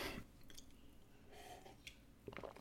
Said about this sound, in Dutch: Oké, okay, even slokje water.